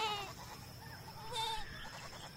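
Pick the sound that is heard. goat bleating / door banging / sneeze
goat bleating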